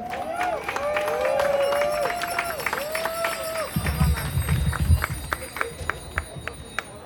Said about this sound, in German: Und ich bitte um euren Applaus für die beiden.